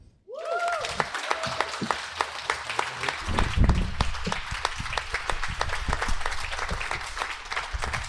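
An audience breaks into steady, sustained applause, dense overlapping claps filling the whole stretch at an even, fairly loud level, with a brief rising whistle-like tone at the very start.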